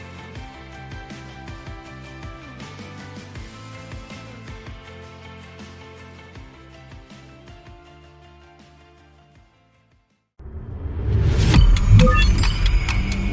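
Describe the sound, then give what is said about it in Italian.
A car pulls up and settles into place, its low engine rumbling, with keys jangling and clinking. Before it, music plays and fades into a moment of silence. “La macchina è parcheggiata, ma il nostro viaggio non si ferma.”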